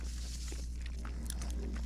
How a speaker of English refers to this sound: sorry y'all, I don't want me chewing in your ear too much. This bacon is crispy.